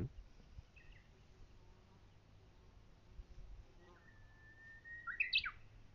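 Outdoors on a mountain, a Japanese bush warbler gives one song: a long, slowly rising whistle followed by a quick bright flourish, over a low background rumble with no talking.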